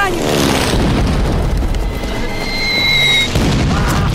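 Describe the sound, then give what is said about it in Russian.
A bomb from an air strike explodes in a trench with a deep, heavy boom, followed by several seconds of loud, churning rumble and falling debris that stays thick and powerful throughout. “Одна из бомб взрывается в окопе, несколько солдат падают.”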